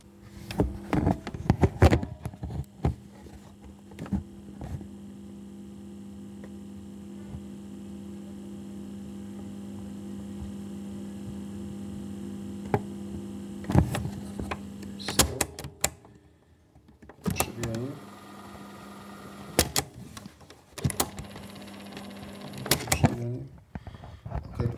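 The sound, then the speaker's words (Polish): A cassette deck runs with start pressed, no cassette playing and all three potentiometers turned up to maximum, giving a steady loud hiss over a low electrical hum, with mechanical clicks near the start and a few clunks and bursts later. “Teraz na maksa włączyłem, na maksa przesunąłem do samej góry wszystkie trzy potencjometry ale kasety nie bawię, będzie tylko szum.”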